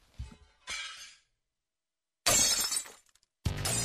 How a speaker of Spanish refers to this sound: Por eso estábamos escuchando cristales rotos.